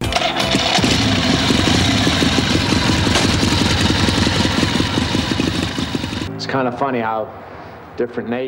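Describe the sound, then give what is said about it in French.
A motorcycle engine runs loud for about six seconds, a rapid, steady throbbing rumble, then cuts off as a man begins speaking. “Bizarrement, dans chaque pays, les moteurs de moto sont différents.”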